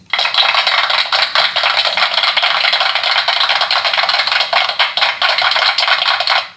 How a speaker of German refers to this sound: Auch ein bisschen zu langer Klatscher, wenn wir ehrlich ja, sind. Ja, das, ist, das stimmt, aber ich meine, es war eine gute Analyse, es hat einen Klatscher verdient.